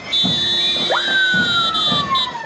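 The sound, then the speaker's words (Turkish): Municipal police vehicle sirens wail continuously in the streets of Çatalca, Turkey, hours before a night curfew, a strong tone sweeping up sharply then sliding slowly down, loud, accompanying a municipal band's street concert, with a faint rhythmic thumping of the band's music underneath. “Çatalca Belediyesi bando ekibinin sokağa çıkamayan vatandaşlar için verdiği konsere zabıta araçları da sirenleriyle eşlik etti.”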